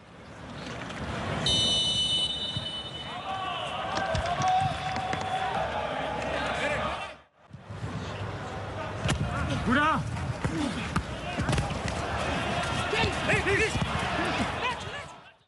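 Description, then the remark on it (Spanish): A roaring football stadium crowd with horns and chants cuts abruptly to a football match in an empty stadium, where sharp ball kicks, thuds and scattered players' shouts echo across the pitch without any crowd noise. “Son los sonidos del deporte rey hoy, en la nueva normalidad, pero que no solo se relacionan con el silencio en los estadios”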